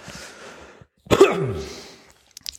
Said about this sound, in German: so, das war jetzt hoffentlich der letzte Huster für heute.